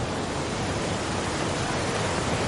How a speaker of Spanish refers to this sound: Grandes olas baten la orilla sin rastro de los niños.